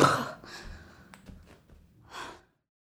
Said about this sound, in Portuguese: com o som da minha própria respiração ofegante depois de fazer umas cinco flexões meia-boca no chão da sala, nos intervalos do trabalho.